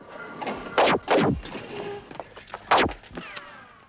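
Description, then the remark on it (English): Three loud, sharp gunshots ring out, two close together and a third a couple of seconds later, each with a ringing tail over a low, busy background of dramatic scene noise. In a TV drama series, the character Hendry is firing at Harry and the Contessa. “So yeah, now Hendry is uh, is firing at Harry and the Contessa.”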